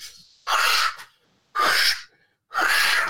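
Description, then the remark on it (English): Three rough, scraping shovel strokes into dirt, evenly spaced about a second apart, each a short burst of gritty noise, fairly loud with quiet gaps between. “Can we get a new sound effect in the archive? Can we hear digging deep?”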